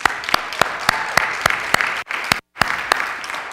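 An audience breaks into steady applause, many hands clapping in a dense, bright wash with sharper individual claps standing out, briefly cutting off twice before the clapping resumes.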